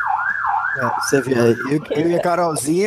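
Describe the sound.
A police siren wails up and down, clear for about a second, then keeps sounding fainter beneath people talking close by.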